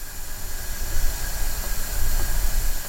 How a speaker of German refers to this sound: Ja, so hört sich das an, wenn die Wasserstofftanks befüllt werden. Die befinden sich bei dem Bus oben auf dem Dach über der Fahrerkabine. Da sehen Sie die einzelnen Behälter aufgeführt mit der jeweiligen, dem jeweiligen Druck und den Temperaturen.